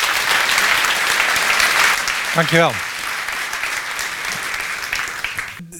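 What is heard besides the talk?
audience applause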